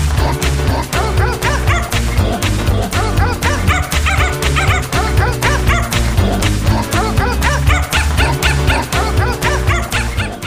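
Dogs bark and yip in rhythm over a loud, bouncy music track, the high yaps repeating steadily like a chorus throughout a novelty song, with a thumping beat underneath.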